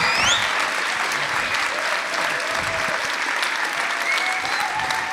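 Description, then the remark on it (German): Sustained, loud, enthusiastic applause from a large crowd for what God did last year, dense and steady for several seconds, with a few faint whistles and cheers rising above the clapping. “Wir probieren noch mal einmal aus äh, einen enthusiastisch deutschen Applaus für das, was Gott letztes Jahr gemacht hat.”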